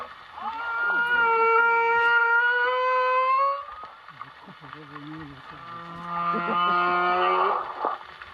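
Song of a male whale captured with an underwater microphone and played over a boat's loudspeakers: two long, moaning harmonic calls, each lasting several seconds with gliding pitch, loud, with a muffled, band-limited quality and no voices.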